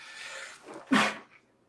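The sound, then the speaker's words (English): A single sharp sneeze from a sick person bursts out after a breathy inhale, loud and abrupt, then fades quickly into quiet with no talking. “I apologize. I have to sneeze.”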